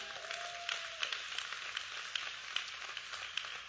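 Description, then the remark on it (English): An audience claps steadily for a few seconds for its visitors, a dense crackle of many hands with occasional sharper claps standing out, and no voices over it. “Give our hand clap for our visitors.”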